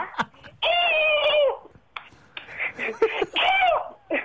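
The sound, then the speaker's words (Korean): A person imitates a horse's neigh as part of a series of animal imitations on a show, two loud, wavering voiced whinnies separated by short, breathy, choppy vocal bursts. “말 하겠습니다.”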